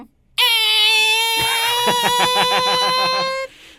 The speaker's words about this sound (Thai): อ่ะหยอดเสร็จแล้วอ่าแล้วประตูจะมีเสียงไหมแบบนี้อ่ะงั้นเดี๋ยวฟังเสียงเปิดประตู